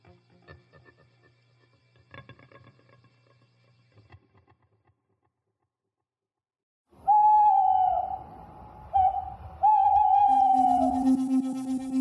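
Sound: owl hooting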